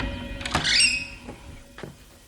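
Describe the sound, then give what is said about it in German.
An office door is opened: a sharp latch click, a short high creak of the hinge, then a few soft knocks and shuffles as it settles. No voices. “Mach die Tür auf.”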